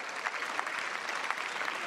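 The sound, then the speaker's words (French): Steady applause fills the parliament chamber (hémicycle) in tribute to police officers who died in service, a dense, even wash of many hands clapping with small irregular peaks, sustained throughout with no voices rising above it. “Je voudrais ici, depuis trois ans, vous lire et j'espère vous faire applaudir dans l'ensemble de cet hémicycle tous les policiers morts en service et qui laissent des veufs, des veufs, des orphelins.”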